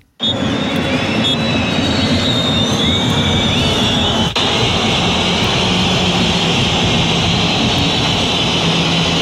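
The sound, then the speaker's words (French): A football crowd at the Stade Vélodrome in Marseille boos and jeers loudly and without letup at the final whistle of a 1-1 draw with Metz as the OM players go to the locker room, a dense, steady roar of voices threaded with shrill whistles, with no break or individual speech. “La bronca pour raccompagner les joueurs au vestiaire.”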